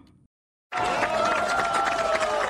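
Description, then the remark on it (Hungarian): After a brief silence, a crowd at the Serbian Progressive Party's election-night results gathering in Serbia on a Sunday evening bursts into loud, sustained applause and cheering, dense clapping with a few whistles and voices rising above it. “Tapsal, pesgővel és részfúvósokkal ünnepelt vasárnap este a szerb haladó párt.”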